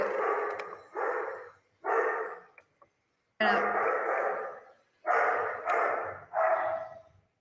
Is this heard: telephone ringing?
no